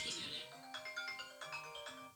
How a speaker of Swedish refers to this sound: Nu ringer det, men ta det du. Nu ringer en gäst tror jag.